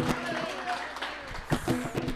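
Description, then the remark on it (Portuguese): An audience at a morning church service applauds the Lord in a dense, steady wash of overlapping claps, with voices talking and calling out over the clapping throughout. “Você pode aplaudir o Senhor nessa manhã, querido? Você pode. Aplauda mais forte.”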